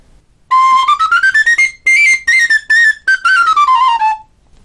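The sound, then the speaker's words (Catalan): A homemade ash-wood flaviol flute with a 14 mm bore plays a short melody of quick, tongued notes, rising from a middle pitch, holding higher, then sliding back down, bright and breathy with no talking. “les mides les vaig fer, no, no record, aquest el vaig fer amb un buidat de 14, que és enorme per un flaviol, i no recordi com és que el vaig buidar amb 14 mil·límetres”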